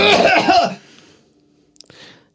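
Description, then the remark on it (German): A loud cough bursts out past a microphone for under a second, harsh and breathy, followed by near silence with a few faint clicks and a soft rustle. “man einmal Goethe zumindest äh, am Mikrofon vorbei hustet”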